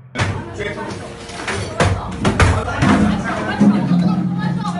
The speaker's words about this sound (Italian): Urla, porte sfondate, ancora urla. Poi arrivano anche le botte e gli arresti.